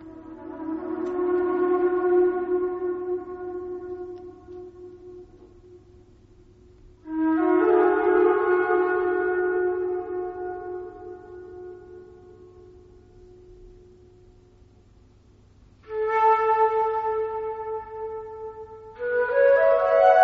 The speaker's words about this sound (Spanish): escuchar un poco cómo retumbaba la gran pirámide con el sonido tan peculiar de la flauta